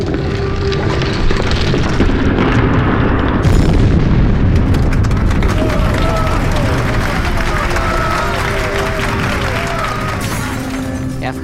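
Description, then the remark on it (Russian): A continuous heavy rumble of buildings collapsing in the distance, deep roaring mixed with crashing, shattering debris, filling the whole stretch; indistinct voices rise faintly in the middle. “Только иногда, в отдалении, я слышу грохот падающих зданий.”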